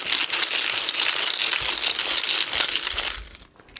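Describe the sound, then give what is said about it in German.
Steady crinkly rustling of a money box being handled, a dense papery scratching that runs for about three seconds and then cuts off, with no voices. “ich habe hier eine Geldbox. Die raschel ich jetzt ein bisschen.”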